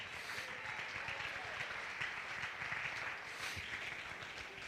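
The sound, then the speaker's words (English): A crowd clapping hands during a sermon as the preacher urges them to jump to their feet and clap, in a steady, dense wash of applause that holds at an even loudness throughout, with many overlapping claps and a faint murmur of voices underneath. “Jump to your feet and clap your hands and say the things that God measures.”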